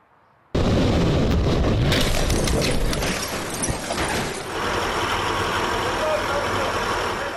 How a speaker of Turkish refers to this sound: Hatay'da freni boşalan vinç adeta ölüm saçtı. 11 araca çarptı. 4 kişi hayatını kaybetti. 6 kişi de yaralandı.